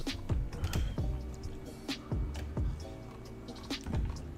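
A pet named Wanwan walks across a computer keyboard, setting off a scattered run of sharp key clacks and dull thumps at an uneven, wandering pace, with no voices.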